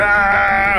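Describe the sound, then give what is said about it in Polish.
A voice imitates a long, unbroken scream held on a single flat pitch, loud, sustained steadily without wavering until it cuts off at the end. “Taki przeciągły krzyk na jednym tonie, który zaczął się i nie może się urwać.”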